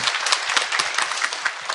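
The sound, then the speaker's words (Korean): A crowd applauds steadily for someone's upcoming last birthday of their twenties, many overlapping hand claps forming a dense, bright wash of sound at an even loudness with no voices over it. “어쨌든 20대 마지막 생일이 다가온다 그러니까 여러분 박수 한번 부탁드리겠습니다.”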